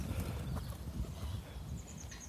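Many pigeons and gulls flap their wings as they pass by at the seaside, a run of soft, rhythmic fluttering beats over an outdoor background, with a brief thin bird chirp near the end.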